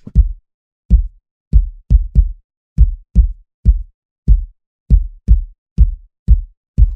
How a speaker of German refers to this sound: Und ich habe jetzt bei der Kick, haben wir mal Sechzehntel. Und die Kick klingt alleine so. Ich habe jetzt vier Sechzehntel und nur die erste ist an.